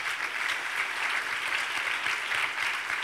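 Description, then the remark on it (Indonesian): A crowd claps steadily for about three seconds in applause for God, a dense, even wash of many hands applauding together at a sustained level, with no voices standing out. “Dengan tepuk tangan bagi Tuhan kita.”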